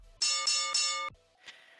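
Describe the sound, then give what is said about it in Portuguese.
A bright, ringing bell sound effect strikes three times in quick succession, loud, then cuts off abruptly, followed by a brief faint rustle. “Toca o sino.”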